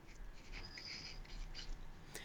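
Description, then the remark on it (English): A pencil scratches across paper in quick, uneven strokes, fairly quiet, with short pauses between marks and a low background hum, as someone writes down a date of birth; no one speaks. “You're doing this in real time, so I can hear the pencil writing that down.”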